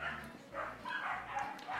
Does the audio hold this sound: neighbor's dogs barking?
yes